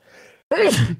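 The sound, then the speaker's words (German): A single loud sneeze: a soft breathy intake, a brief pause, then a sudden explosive voiced burst that trails off. No one is speaking. “Gesundheit.”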